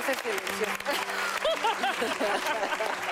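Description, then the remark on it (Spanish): Farewell applause: a steady wash of many hands clapping for about three seconds, with excited voices calling out and cheering over the top. “yo las felicito a todas y yo creo que nos merecemos un aplauso de despedida.”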